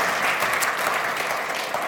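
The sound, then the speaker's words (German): Steady applause from the studio audience of the Prisma programme welcoming former footballer Michael Sternkopf, a dense wash of many hands clapping at an even loudness for the whole two seconds, with no voices standing out. “Gebt doch einen Applaus.”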